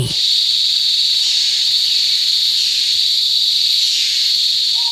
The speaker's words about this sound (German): Wir sind in einem Wald.